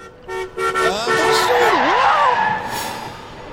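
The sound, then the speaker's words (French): A car horn honks loudly in a couple of short blasts as the car nearly hits a person crossing the road in a village without looking, followed by a wavering, swooping tone that slides down and back up before fading. “La masseur aurait dû se faire percuter par cette voiture.”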